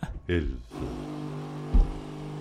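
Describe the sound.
A coffee machine brewing coffee runs with a steady, low mechanical hum that holds after a short burst of voice at the start, with one dull knock partway through.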